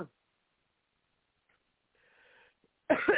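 person coughing

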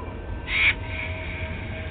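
raven cawing

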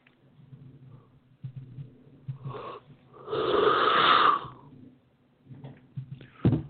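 person yawning

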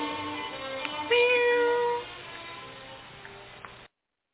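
cat meowing

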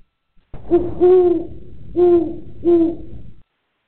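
owl hooting

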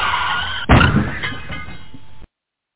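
car crash sound effect

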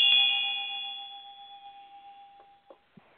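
ritual bell being rung

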